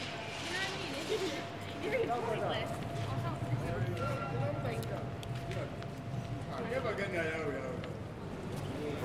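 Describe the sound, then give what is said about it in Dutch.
Steady footsteps of several travelers walk across a hard floor at Centraal Station, with indistinct voices murmuring in the background and a faint constant hum. “Daar hoor ik iets wat je normaal niet hoort. Voetstappen van reizigers.”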